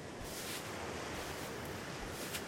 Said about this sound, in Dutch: In onze achtertuin kom je direct met je voeten in strandzand. De zee is onze achtertuin.